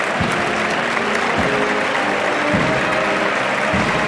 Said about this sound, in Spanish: Los aplausos los va abriendo la bandera. A medida que va avanzando la bandera, ¿ves? Ahora los aplausos empiezan por la zona más cercana a tribuna, que es donde está llegando.